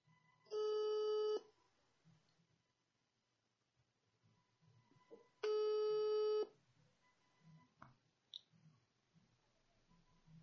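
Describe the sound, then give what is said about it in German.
Two steady, mid-pitched ringing tones, each about a second long and several seconds apart, the ringback of an outgoing phone call, followed by a faint click and low background noise. “Warte, warte, warte, ich ruf jemanden an, ich ruf jemanden an, okay?”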